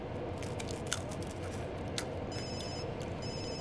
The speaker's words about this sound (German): Ihr Telefon klingelt schon wieder.